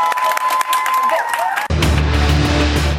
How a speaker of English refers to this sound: Oh, just getting a round of applause.